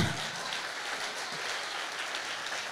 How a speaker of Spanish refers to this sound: Ese aplauso es para Dios.